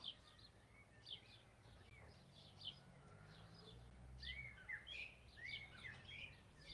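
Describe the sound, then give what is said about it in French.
A blackbird sings outdoors in short, fluting phrases and chirps that come and go, fairly faint, over a low steady background rumble, with a brighter burst of song toward the end. “Mais ce petit enfant qui entend le son de ce merle pour la première fois s'émerveille, s'enchante, se laisse surprendre.”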